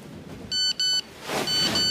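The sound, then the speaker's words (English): A phone text-message alert in the morning while on holiday in the Black Forest, Germany: two short, bright electronic beeps in quick succession, then a longer sustained tone, all fairly loud over a low background hiss. “Uh, a text message.”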